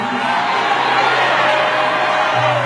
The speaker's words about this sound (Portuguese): Levante a mão para dar um grito de aleluia.